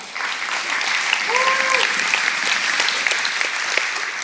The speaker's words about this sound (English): after 25 years of marriage, which I'll be celebrating 25 years in March, isn't that awesome? You can clap.